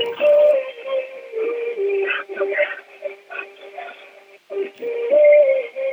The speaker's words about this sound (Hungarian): de hát ezt, ez, ez isteni zene, már, hát már is kattintom, Igen. és megy a zene, tessék. Küldjük mindenkinek.